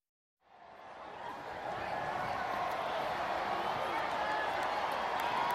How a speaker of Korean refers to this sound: 우레와 같은 함성이 울렸다. 주우은 활짝 웃으며 환호하는 인파를 향해 손을 흔들었다